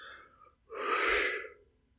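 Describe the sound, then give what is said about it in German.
A single soft, airy exhale lasting under a second, breathy and unhurried, with no talking around it; a deliberately gentle, quiet exhale, released lightly out of tension rather than blown out, demonstrated as a transition between poses. “Das heißt, ich gehe von der Anspannung eher leicht ins Ausatmen dann nochmal oder einatmen, je nachdem, was ich gerade mache.”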